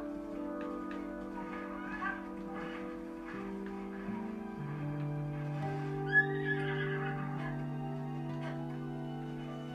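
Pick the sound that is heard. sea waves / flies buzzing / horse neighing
horse neighing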